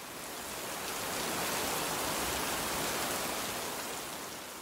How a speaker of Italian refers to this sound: Pioveva più forte.